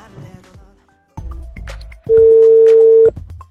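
A telephone number being dialed: a quick run of short electronic keypad beeps, then a loud, steady phone tone that holds for about a second before cutting off. No voices.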